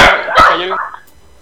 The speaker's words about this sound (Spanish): Estaba, mi perro ladrando.